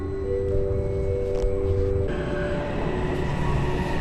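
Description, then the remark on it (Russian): A metro train with nearly empty carriages pulls into a station with a loud, steady low rumble and sustained tonal whines that shift pitch midway as it slows, with no voices present. “А вот и едет мой поезд.”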